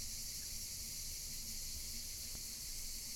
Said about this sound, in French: Aujourd'hui, peut-être les entendez-vous, les cigales vont nous accompagner.